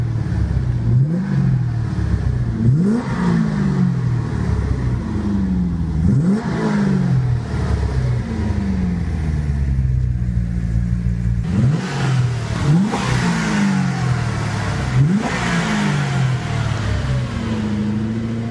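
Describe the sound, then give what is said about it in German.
An AMG M117 V8 car engine with a four-valve cylinder head revs repeatedly, its deep rumble swelling and falling in a steady series of throttle blips, loud with no talking. “Und wir, wir hören uns einfach mal an, wie der AMG Hammer so geklungen hat. Hier kommt der M117 mit dem Vierventilkopf von AMG.”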